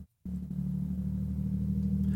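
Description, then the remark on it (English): After a brief moment of silence, the deep, steady engine rumble of a truck being driven down to the lower lots rises and holds outside, a low droning hum that lingers without fading, with no voices. “I'm waiting for this truck to go past.”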